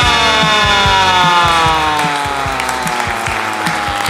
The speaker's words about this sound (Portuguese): Porra, que aplauso merda, hein, gente? Porra, aplaude direito aí, porra.